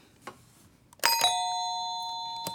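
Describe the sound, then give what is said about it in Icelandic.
A two-note ding-dong doorbell chime, used as a quiz team's buzzer, rings out clear, its bright tones lingering and slowly fading, with a couple of faint knocks or clicks around it and no voices. “Týstarar eru með ding-dong.”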